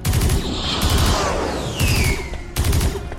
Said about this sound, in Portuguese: Ele deu mais alguns tiros para cima quando uma nave inimiga passou em rasante.